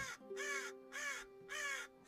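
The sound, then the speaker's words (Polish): Three loud, harsh raven caws ring out in a steady rhythm from a dried-out grove of dead trees in a swamp, each a broad raspy call, with a faint sustained tone humming underneath throughout. “gdzieś kruki wśród wyschniętego lasku i martwych drzew, które wyglądały jak, jak zębiska wyrastające się, wyrastające z tych bagien,”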